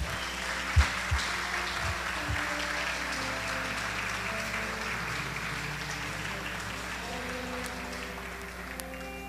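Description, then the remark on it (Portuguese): An audience claps steadily in praise of the Lord, a dense, sustained wash of many hands filling the whole stretch, with a few sharper low thumps early on and a faint tonal hum beneath. “E com palmas nós louvamos ao Senhor, Pai.”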